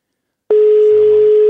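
A single ringback tone from a phone call ringing out to a guest in Molde: one steady, mid-pitched beep lasting about a second, starting and stopping with soft clicks, with no voices.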